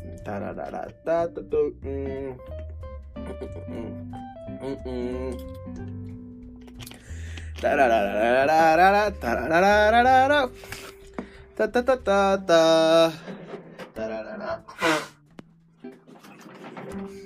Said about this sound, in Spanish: Eso que acaban de escuchar no fue este el motor de alguna avioneta intentando encender fue mi nariz. Perdón.